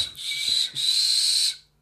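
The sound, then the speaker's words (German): A person practicing whistling whistles a high, breathy, airy tone, broken briefly after the first half-second and then held steadily for nearly a second before trailing off. It sounds fairly loud, with no talking. “hier noch versucht, irgendwie ähm, Pfeifen zu üben, du Pfeife.”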